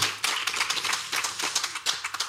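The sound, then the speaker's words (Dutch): Steady applause from a group, a dense crackle of many hands clapping at once, moderately loud and continuous throughout with no voices. “Applaus voor Anton Hulst.”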